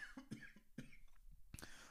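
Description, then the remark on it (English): A run of short, dry coughs from one person, several quick bursts in a row with a slightly harder final one, and no talking. “right after this cough.”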